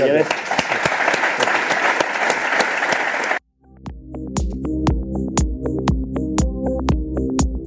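A burst of lively applause from an audience fills the first few seconds, cuts off abruptly, and is followed after a brief gap by upbeat music with steady percussive hits.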